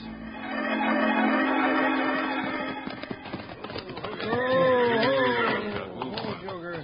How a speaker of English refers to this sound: Abner, Wild Bill, and Jingles are reining up their horses near the schoolhouse steps